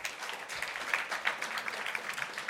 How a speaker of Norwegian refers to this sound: Um, og eh, da ønsker vi velkommen altså, ungdomspolitikerne våre her i kveld. Vi gir dem en applaus.